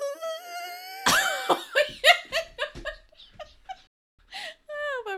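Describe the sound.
A person vocally mimics a high-pitched whine, a sustained wavering tone followed by a burst of breathy, laughing pulses.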